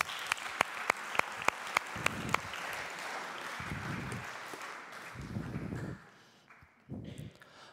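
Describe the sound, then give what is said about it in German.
An audience applauds in a dense, steady patter of clapping. A few sharp, evenly spaced claps ring out over it at first, then the applause thins and dies away near the end. “Wir könnten ihm schon mal einen Applaus geben.”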